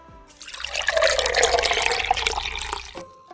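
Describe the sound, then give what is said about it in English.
Coffee pours into a cup in a steady splashing stream for about three seconds, fairly loud, then cuts off with a small final trickle. No one speaks. “Ah, do you hear that? That means the start of a good day in my household. If I don't have that first cup to begin my morning, then I'm guaranteed my day is going to be a struggle.”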